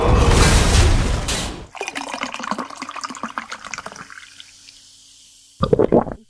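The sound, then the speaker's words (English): A drink poured into a glass, opening with a rushing splash, then a bubbly trickle and fizz that gradually fades, ending with a brief final splash. “So uh, Let's pour a drink and jump right in.”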